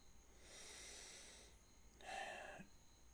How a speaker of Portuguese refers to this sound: Tô bocejando pra caralho aqui porque eu tô gravando meia-noite 13. Um domingo de Páscoa.